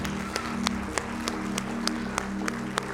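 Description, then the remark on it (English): A church audience claps steadily in unison as an ovation of praise, sharp even claps about three per second over a bed of crowd noise and a low sustained musical drone. “Come on and give him a hand clap, an ovation of praise today.”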